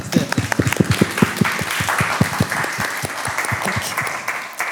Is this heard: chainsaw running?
no